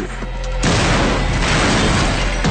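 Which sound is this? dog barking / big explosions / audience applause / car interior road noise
big explosions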